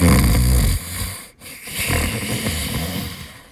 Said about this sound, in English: Within a few seconds, the bog tech was curled up in the muddy puddle, snoring loudly.